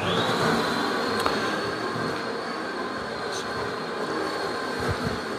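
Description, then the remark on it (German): A fully automatic coffee machine's grinder grinds beans for a small cup, running steadily and loudly for the whole stretch, a constant harsh whirring with a high whine on top and no talking. “Ich gehe ein Stück zur Seite, bis das das Malwerk fertig ist.”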